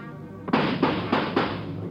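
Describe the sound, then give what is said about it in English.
Four sharp gunshots fire in quick, fairly even succession as a man tries to shoot his way out, each a loud crack with a brief tail, over a steady low rumble of background noise. “He's trying to shoot his way out.”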